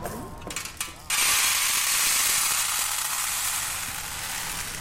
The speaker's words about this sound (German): Die verschieden großen Körner machen unterschiedliche Geräusche. Wie viele Sorten Hirse haben Sie hier gesammelt? Über 78.000.